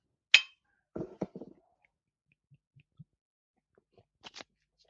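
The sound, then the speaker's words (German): A single bright glass clink rings out near the start during a toast with Klosterexport Dunkel, a dark export beer, followed by a few dull knocks and soft handling noises, then a pair of faint ticks near the end. No one speaks. “Ja. Also, äh, Prost.”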